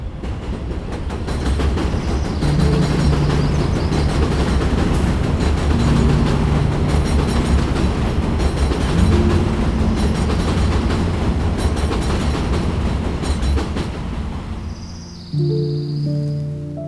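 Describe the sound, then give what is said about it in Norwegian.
A train rumbles steadily along the tracks, a loud, dense roar with deep low hum and faint clattering, sustained throughout before a brief tonal whine near the end. “Der drømmen, drømmen fortsatt pumper som et tog, dundrende gjennom et landskap av skarpskåren lyst.”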